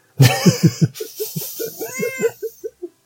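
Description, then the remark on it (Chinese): A cat meows in a rapid, chattering run of about a dozen short, bright cries, one drawn out and rising near the end, with no talking alongside. “猫也表示 是， 他同意。”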